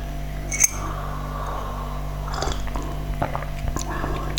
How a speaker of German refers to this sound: Ich kann ja schon mal kurz nippen. Mal gucken, wie er schon schmeckt.